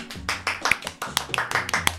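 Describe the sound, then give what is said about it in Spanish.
Brisk self-applause, a person clapping for themself: roughly nine or ten sharp claps in a loose, uneven rhythm, fairly loud and with no voices over them. “Me, aplaudo porque es necesario autoaplaudirse.”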